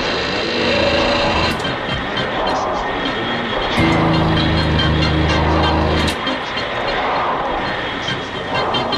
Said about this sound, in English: What a big piece of machinery helping make the boat go. Bye. And how smooth and powerful it seems.